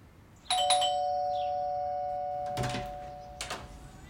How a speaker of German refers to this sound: Ja, also das Hus ist echt krass. Wollen wir mal klingeln?